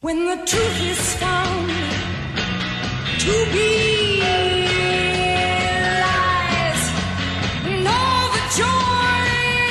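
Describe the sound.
A driving late-sixties rock song plays loud and steady, a powerful female lead voice belting sustained sung lines over a full band of guitars, bass and drums.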